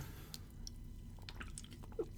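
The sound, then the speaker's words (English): Someone takes a quiet sip of a drink, with small wet mouth clicks and a soft swallow over a low background hum, no talking. “I had to take a sip of this uh, of my drink.”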